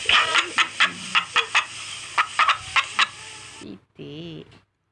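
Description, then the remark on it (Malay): A chicken clucks in a rapid series of short, bright calls against a faint hiss, followed by a brief pause and a softer, wavering vocal sound near the end. “Ni apa ni? Ayam.”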